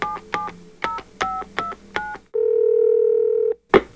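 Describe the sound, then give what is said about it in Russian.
A quick run of touch-tone telephone dialing beeps as a call is placed to a female performer, about seven short two-note tones in a row, followed by a steady ringing tone and a brief click at the end. No voices. “Давайте же позвоним артистке и услышим все из первых уст.”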